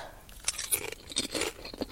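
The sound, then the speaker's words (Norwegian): Crisp, irregular crunching of extra-thin, curly, nearly transparent salted potato chips being chewed, a series of sharp bright bursts at uneven intervals, fairly quiet, with no talking. “Saltchips har vi valgt. Det er visst med salt og pepper også.”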